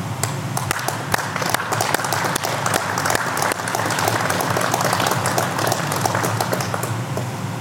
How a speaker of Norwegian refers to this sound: Det synes jeg alle involverte fortjener en applaus for.